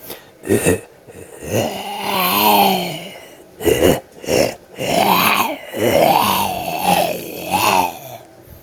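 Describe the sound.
A person imitates a zombie with guttural vocal groans: a few short grunts, then long, wavering moans that rise and fall in pitch, broken by brief choppy bursts, with no ordinary talking.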